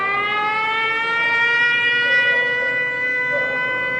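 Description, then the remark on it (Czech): A sustained air raid siren wails steadily outside the windows of a hostel in the centre of Lviv, western Ukraine, during a nationwide air raid alert, its tone gliding slowly upward with rich harmonics, loud and continuous with no voices. “Sotva dosednu na postel v jednom z hostelů v centru města, rozezní se letecký poplach. Nejprve zaslechnu za okny sirény a pak se mi rozezní alarm v aplikaci, která na možné ohrožení upozorňuje.”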